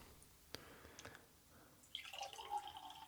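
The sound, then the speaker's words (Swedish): A few faint drips, then a steady stream of drink pouring carefully into glasses side by side for a tasting, starting with the younger of two, its pitch rising as the glass fills. Fairly quiet, with no talking. “Vi kan hälla upp lite sida vid sida va?”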